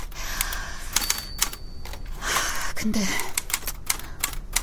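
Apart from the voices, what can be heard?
typing on a typewriter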